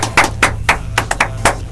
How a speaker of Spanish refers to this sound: Te está sonando el teléfono, hombre, en, pleno aire.